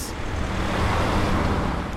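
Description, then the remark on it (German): Steady stop-and-go road traffic rumbles in morning rush-hour congestion in Gießen, queued for kilometres because a road is half closed. A dense wash of engine and tire noise with a low hum underneath holds fairly constant for the full two seconds, with no voices. “Besonders im morgendlichen Berufsverkehr heißt es Stop and Go. Der Verkehr staut sich kilometerlang, sogar bis auf die Autobahn.”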